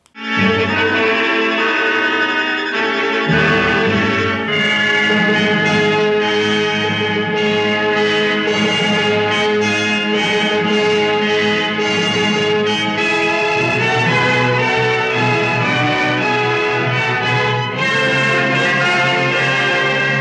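A loud, continuous stretch of film soundtrack music with dense sustained tones, a deep bass layer entering after a few seconds, and steady energy throughout, with no voices.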